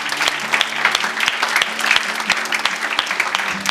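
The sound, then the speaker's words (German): A crowd claps steadily for the people who made the decision for the first time today, a dense, continuous patter of many hands that holds at a fairly even loudness throughout, with no voices standing out. “Gib doch mal den Menschen Applaus, die heute diese Entscheidung zum ersten Mal getroffen haben.”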